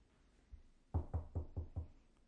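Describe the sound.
Five light, evenly spaced knuckle raps of a polite knock at the door of a home, clear against a quiet background with no talking, after one faint soft thump.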